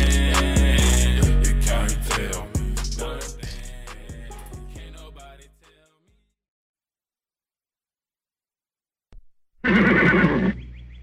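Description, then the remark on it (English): A loud horse whinny from Mr. Ed, the famous talking horse, rings out near the end, shrill and quavering for about a second, following a stretch of plucky music and a few seconds of silence. “A horse is a horse, of course, of course, and no one can talk to a horse”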